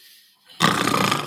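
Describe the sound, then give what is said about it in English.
A man imitates a snore, opening his mouth, breathing harder and constricting his throat, with a single loud, rasping, throaty burst that starts abruptly after a brief quiet moment and rattles on for under a second. “I'd like you to to make the sound of a snore”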